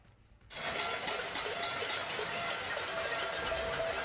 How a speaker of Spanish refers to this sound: Y como sea, los cacerolazos que se hicieron oír en todo el país, eh, eh, eh, poneme algún cacerolazo y decime de cuándo es, por favor.